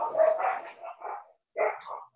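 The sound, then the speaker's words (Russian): Two small dogs bark and yap in quick bursts, competing for attention, with a short pause before another round of sharp, high-pitched barks. “Это, это не бегемотопись, это у меня тут а, две, две собачки борются за внимание”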